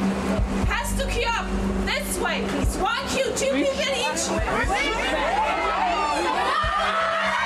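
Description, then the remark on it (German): A loud, dense crowd of fans gathered in front of the entrance to a fenced-off waiting queue, shouting and chattering continuously, with overlapping voices and occasional high, rising cries and bursts of laughter throughout. “Komm, komm, wir ah. lassen die Leute mal schreien hier.”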